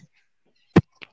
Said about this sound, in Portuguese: Beleza, esse foi o som da, da batida de carro que eu causei porque eu me joguei em cima de dois carros.